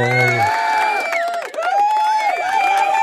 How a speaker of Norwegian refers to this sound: Det er publikum hypa.